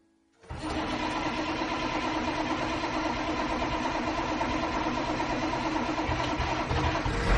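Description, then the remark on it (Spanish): After a moment of quiet, a bus engine starts abruptly and settles into a loud, steady rumbling idle that continues without letting up, with no voices. “El autobús.”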